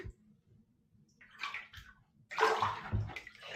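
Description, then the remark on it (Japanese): Water sloshes around in a bathtub with a soft splash, a short pause, then a louder, longer swirl of moving water over a low echoing hum. No one speaks. “お風呂でこんなことやっちゃったら、俺のお風呂の楽しみがなんか奪われた感じは少しありますよ。”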